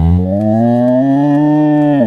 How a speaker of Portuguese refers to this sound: Passou uma vaca correndo aqui desembestada. Cara, cara, qual era o efeito da tua vaca mesmo?